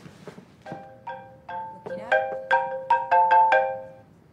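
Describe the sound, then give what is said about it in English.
A phone ringtone plays a bright melodic run of electronic notes during a yoga class, starting sparse and then quickening into a rapid, louder sequence, with faint background murmur at first. “And then he was like, "I'll," because he was looking for the phone.”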